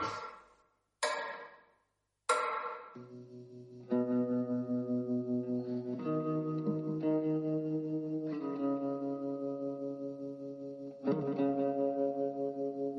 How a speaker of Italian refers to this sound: andiamo ad ascoltare il brano … di …, ci ritroviamo fra 3 minuti e 44